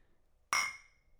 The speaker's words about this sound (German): Wir müssen einfach Bier trinken. So mit Soundeffekt und so. Aber bei welchem Mikrofon stoßen wir an? Bei meinem.